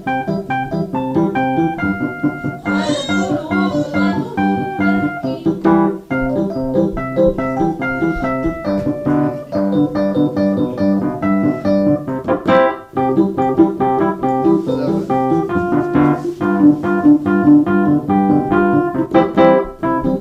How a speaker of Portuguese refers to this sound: Ele já jantou e tomou banho, agora está na hora da cama. O pai só tem de tocar mais uma música.